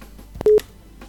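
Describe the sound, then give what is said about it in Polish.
A telephone number being dialed: one short, steady electronic phone tone at a moderate pitch, framed by a couple of soft clicks, with no one talking. “W takim razie, jeżeli tak przejdziesz do Androida, pozwolę jeszcze sobie zadzwonić.”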